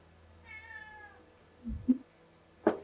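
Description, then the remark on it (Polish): A cat lets out one drawn-out, slightly falling meow, fairly quiet, followed by a few short, sharper bursts of sound; no one speaks. “usłyszał, że kot musi żreć, nie? I się włączył.”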